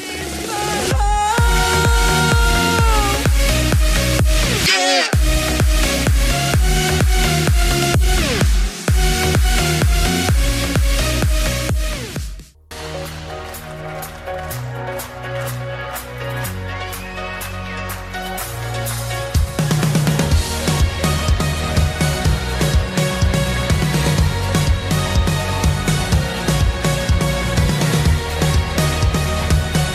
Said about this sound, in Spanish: Muy bien, hermoso tema el que estábamos escuchando recién.